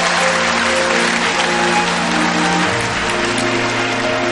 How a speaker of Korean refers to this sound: 네, 어머님께 여러분 박수 한번 부탁드리겠습니다.